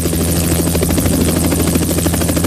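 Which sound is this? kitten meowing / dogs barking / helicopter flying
helicopter flying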